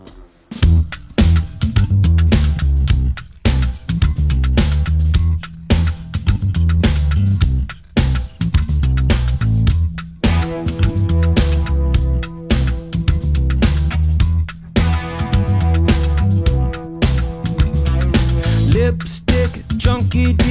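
A loud funk rock track plays continuously, driven by punchy drums and a thick, syncopated bass line, with bright guitar and sustained tones layered on top, no talking over it.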